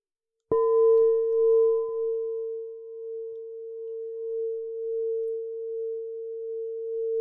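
A singing bowl is struck once, then rings with a steady, pure mid-pitched hum that sustains for several seconds, gently wavering in loudness as it slowly fades, with no voices.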